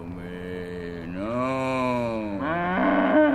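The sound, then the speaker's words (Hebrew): A cow moos in one long, drawn-out call that bends up and down in pitch over a few seconds, loud, with no talking. “קומי, פרה מטומצמת.”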